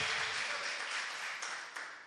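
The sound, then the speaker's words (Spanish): A crowd applauds steadily, a dense, even wash of clapping that stays loud throughout and fades slightly toward the end, with no voices standing out. The applause is given to 'our king'. “Un aplauso, denle un aplauso a nuestro rey.”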